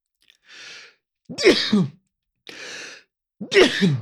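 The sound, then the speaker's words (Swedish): Two loud sneezes in a row, each preceded by a sharp breathy intake and ending in a forceful explosive burst, with a brief pause between them and no talking. “Prosit.”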